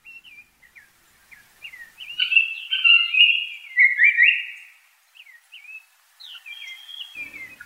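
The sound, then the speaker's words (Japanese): A Japanese paradise flycatcher sings in the open on Mount Takao, Tokyo, Japan: a run of clear, whistled and slurred phrases that swell into a bright, rapid burst mid-song before trailing off into softer chirps, with no other sounds around. “高尾山（東京）のサンコウチョウをお届けします。”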